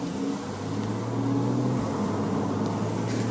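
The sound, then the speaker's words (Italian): Steady, dense road noise with a low engine hum and broad rushing wind, heard while riding in a convertible car with the roof open through traffic of cars, trucks and buses; continuous and fairly loud, no voices. “Si potrà già notare che la differenza di rumore è minima, quello che si sente di più sono i rumori esterni, le macchine, camion, pullman.”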